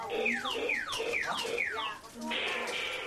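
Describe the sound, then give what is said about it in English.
A children's bike squawk box on a shiny new bike, ridden by two young kids around a living room, blares a quick run of five descending, siren-like electronic whoops, loud, then breaks into a brief hissy, buzzing burst. “his two young kids ride around the living room on a shiny new bike with a squawk box.”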